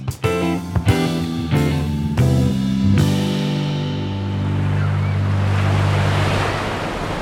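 Ocean waves wash onto a beach in a steady, rushing hiss that swells and holds, with a few sustained musical tones sounding at the start before fading beneath the surf.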